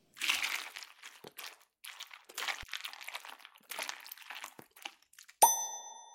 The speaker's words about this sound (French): Le matin, écoute les céréales chanter dans ton bol quand tu ajoutes du lait.